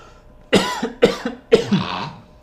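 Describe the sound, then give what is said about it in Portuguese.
Three harsh coughs in quick succession, each a sharp burst followed by a raspy tail, with the last one trailing off into a wheezy breath. No one speaks. “Não, foi uma tosse.”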